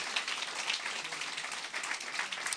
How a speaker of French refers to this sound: Yes, merci d'applaudir.